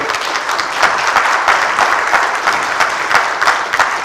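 A church audience breaks into a steady round of applause for their pastor, dense overlapping claps sustained at an even level for several seconds with no voices standing out.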